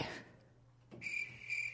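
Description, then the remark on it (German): A cricket chirps in two short, high-pitched trills after a brief quiet moment, clear but not loud, with no voices and only a faint low hum underneath. “Das haben, Grillen, sie haben die Grille.”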